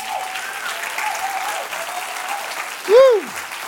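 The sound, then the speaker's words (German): An audience applauds loudly and steadily to welcome a guest onto the stage, a dense wash of clapping throughout, with a single rising-and-falling whistle or cheer cutting through near the end. “Und äh, heißt mir herzlich willkommen bei uns auf der Bühne mit einem riesen Applaus.”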